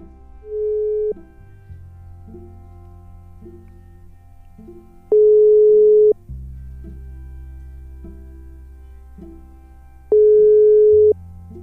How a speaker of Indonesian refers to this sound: Kita coba hubungi melalui sambungan telepon dan mudah-mudahan semuanya berjalan dengan lancar. Ya, kita lagi calling.